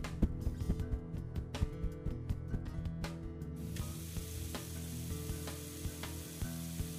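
A smoking, corroded object with an acidic odor sizzles after being placed in a pail of water: a loud, steady hiss and crackle with scattered sharp pops, the bright upper hiss thinning about halfway through. No one speaks.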